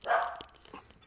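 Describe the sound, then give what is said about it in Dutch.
A single sharp bark from a pet dog rings out, followed by a fainter trailing yelp and some soft background noise. “Is dat jouw hond, uh, eh, Dit Dat is mijn hond.”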